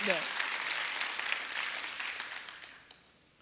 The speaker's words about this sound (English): Come on, if that's you today, just clap your hands right now in this room and let's just thank God that He's already come first.